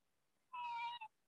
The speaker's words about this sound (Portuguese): A minha gatinha tá aqui. Eita, é, tá participa... é participação especial.